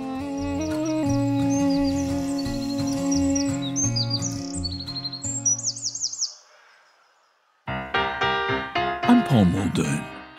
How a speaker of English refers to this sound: You just suddenly see it flit from one little bush to another. This small brownish bird is a wren. And singing as it goes. We can learn to know wrens by their sound.